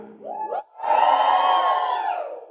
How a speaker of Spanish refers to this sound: ¿Venezolano? Dos buenos venezolanos que gritan duro.